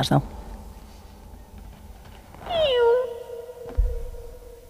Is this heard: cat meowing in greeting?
yes